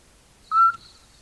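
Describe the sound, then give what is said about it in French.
A mother scops owl calls to her chicks in the nest with one short, clear whistled hoot, a steady pure note lasting a fraction of a second, against a quiet background with no voices. “Parfois aussi, on peut entendre si on est très, très attentif, que la mère, petit duc, parle à ses bébés dans le nid.”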